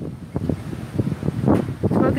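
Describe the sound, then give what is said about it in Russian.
Strong, gusty wind suddenly rises in hot weather, buffeting the microphone outdoors in heavy rumbling surges that rise and fall and raise desert-like dust, with muffled voice fragments partly buried beneath the blustering roar. “Вот видите, мы о них начали говорить, и на пустом месте жару начался ветер жуткий.”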